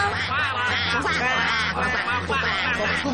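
A steady chorus of frogs croaking, with nasal, quacking croaks overlapping in loud, rippling bursts for the whole stretch over a low continuous hum; the frogs are blocking a river.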